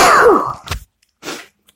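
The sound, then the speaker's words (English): A loud, explosive sneeze bursts out with a strained vocal edge, followed by two short, softer breathy bursts, like a sniff and a small cough. No one speaks. “So anyway, with the Android, I'm going to sneeze.”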